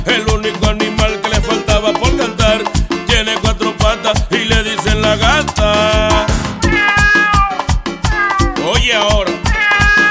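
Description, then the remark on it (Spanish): A female cat's meows sound repeatedly over a loud, upbeat song about animals with a steady thumping beat, the meowing cries rising and falling in pitch among the vocals. “al único animal que le faltaba por cantar le dice la gata”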